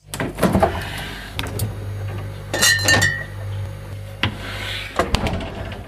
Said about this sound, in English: We're just going to run to the beer fridge, grab another beer, and be right back.